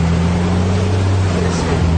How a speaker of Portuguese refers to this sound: Para chegar aos estúdios, o apresentador contou com a carona de um trator. Dá uma olhada.